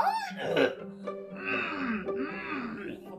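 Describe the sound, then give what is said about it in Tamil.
A human voice imitates an elephant in a story crying out in pain as a woodpecker pecks at it, with strained, wavering wails and moans rising and falling for about three seconds, moderately loud. “அப்படின்னு வழியில கத்துது துடிக்குது”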